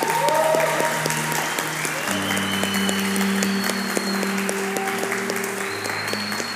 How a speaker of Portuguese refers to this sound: Eu queria que vocês dessem um aplauso ao Senhor Jesus.